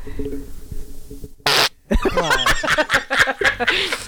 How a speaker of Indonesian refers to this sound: Aduh, lo kentut